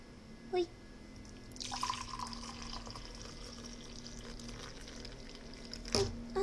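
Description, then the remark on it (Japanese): Hot dissolved gelatin liquid is poured steadily into a heat-resistant container to make plum jelly, a continuous trickling pour for several seconds, with a faint low hum underneath and a couple of brief clinks at the start and end. “そしてゼラチン溶けましたでまあまあ何回かね結構熱々の液体を入れても大丈夫でできている容器なので注ぎますいくよ”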